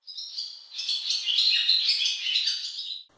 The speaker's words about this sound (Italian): Il garrito stridulo di una rondine solitaria ferisce il silenzio.